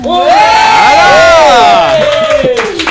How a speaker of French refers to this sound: on applaudit les biscottos hein